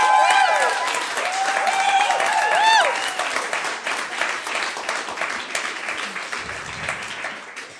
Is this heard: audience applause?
yes